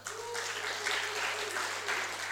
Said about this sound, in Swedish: Tack Jesus. Ge dem en applåd.